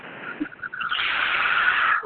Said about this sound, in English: Now we're going to begin belly breathing in through your nose, blowing up your belly like a balloon, and out through your mouth. So begin belly breathing. Another one. Big deep breaths.